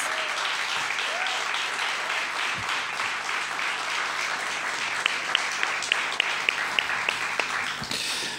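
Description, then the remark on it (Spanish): A crowd applauds the accompanying guitarist and percussionist steadily for several seconds, a dense wash of many hands clapping, with a few sharper individual claps standing out near the end before it fades. “Y este aplauso es para ellos.”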